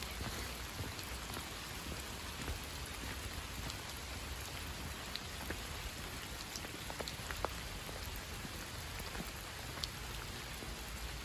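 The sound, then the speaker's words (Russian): Steady rain falls in a park, a dense hiss of drops with scattered sharper patters on surfaces. No one speaks, and the level holds even for the whole stretch. “входе в парк нас встречает радостно прыгающий щенок самоеда, который окрасился в серый цвет из-за дождя.”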